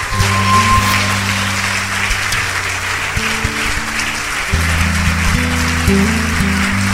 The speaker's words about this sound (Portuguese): Vamos aplaudir mais o Senhor.